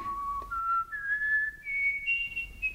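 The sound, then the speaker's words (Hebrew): A person whistles a slow rising tune to call a small chirping pet named Sheleg, clear tones climbing step by step over soft low background rumble, alone with no talking. “שרקתי,”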